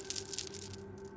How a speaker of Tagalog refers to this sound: Pero sa gitna ng dilim, naririnig ko ang tunog ng isang kadena.